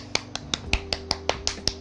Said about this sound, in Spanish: Yo voy a hacer un aplauso solitario a esos papás que tienen muchos niños. Es más, vamos a hacerle un standing ovation. Me estoy poniendo de pie para hacerle el aplauso.